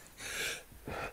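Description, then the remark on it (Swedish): A single quiet sneeze: a breathy intake followed by a short, sharp burst, with no talking over it. “Ja. Prosit.”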